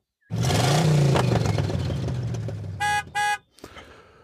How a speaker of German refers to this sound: Währenddessen kommt von hinten angefahren ein Auto.